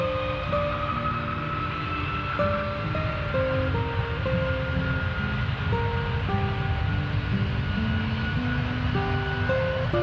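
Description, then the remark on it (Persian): A continuous, steady airplane engine drones throughout, with a broad rumbling roar and humming tones that shift pitch now and then, with no one speaking. “فقط شبا صدا میپیشه توی سرم صدای هواپیما”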